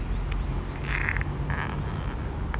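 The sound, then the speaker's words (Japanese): Steady low traffic rumble from a busy road, with a couple of vehicles swelling past one after another at moderate volume and no voices. “ちゃ車通り多いな”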